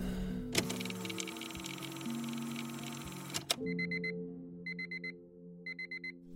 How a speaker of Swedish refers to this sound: Måndag morgon. Året är 1990. Klockan sju ringer väckarklockan i ett sovrum utanför Göteborg.